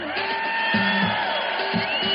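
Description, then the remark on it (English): A high school sports crowd cheers steadily with a dense, roaring wall of voices, scattered whoops and shouts rising above it, loud throughout the brief moment. “Everyone agrees high school sports give us plenty of reasons to cheer.”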